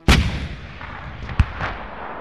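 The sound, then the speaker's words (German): A lone cannon is fired at besieging enemy troops: a loud, booming blast opens, followed by a long rumbling echo, then a sharper second shot and a fainter boom as the reverberation fades. “Und dann stellt er sich an eine vereinsamte Kanone und schießt so viele Feinde ab, dass die gegnerischen Truppen abziehen müssen.”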